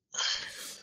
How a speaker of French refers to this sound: Bah, à tes souhaits